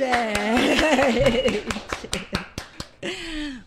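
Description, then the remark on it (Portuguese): An audience welcomes a guest with a quick, steady round of sharp hand claps, about five per second, with a drawn-out vocal cheer over the first half. The clapping thins out and a voice speaks at the end. “Uma salva de palmas,”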